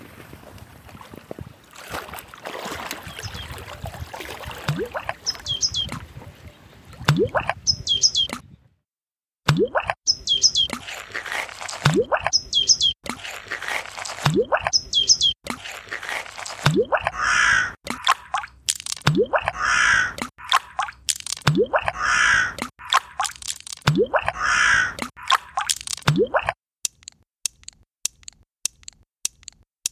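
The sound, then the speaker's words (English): Outdoor wetland ambience on Danube Island by the Danube river in Vienna's 22nd district, where crows caw again and again at a fairly steady pace over a constant low rush of wind and water. No one speaks. “Ambience of Danube Island. Ice skating. The Danubian wetlands.”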